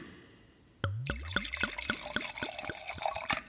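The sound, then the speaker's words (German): Wine glugs out of a freshly opened bottle into a glass for a tasting, in a quick run of rhythmic gurgles with a rising liquid pitch, starting suddenly after a quiet moment and continuing steadily, with no talking. “Ich schenke meistens bei den Verkostungen den Wein maximal bis zur dicksten Stelle im Glas sein.”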